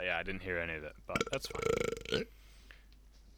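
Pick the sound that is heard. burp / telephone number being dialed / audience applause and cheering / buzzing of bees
burp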